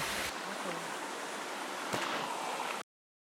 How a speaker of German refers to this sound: Jetzt gehen wir hier übrigens wieder über ein paar Felsen. Ein mini-mini-Wasserfall, der ganz bezaubernd aussieht.